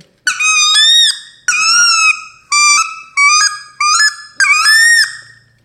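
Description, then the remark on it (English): A goose hunting call blown in six loud, honking notes, each a nasal, squeaky two-tone honk lasting about half a second, in an uneven rhythm with no talking. “I don't think that sounds like a goose at all.”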